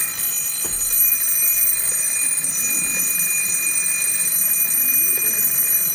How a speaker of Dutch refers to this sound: Het is ongelooflijk, maar dit ziet eruit zoals je een ouderwetse wekker tekent. Zo'n rondje en dan van die belletjes erboven met zo'n verbindingsstukje. En eh, jij slentert al die eh, kringloopwinkels af. Dan heb je deze gevonden.